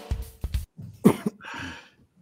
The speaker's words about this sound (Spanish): ya te pillé tosiendo.